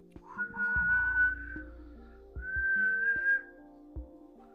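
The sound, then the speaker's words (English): A person whistles two long, steady notes, separated by a short pause, imitating a creature's call. The whistles are clear and fairly loud over a low background drone, with no talking. “Okay to lure, uh, like like a baby, to lure you out of your house, and it's also been known to make a whistling sound.”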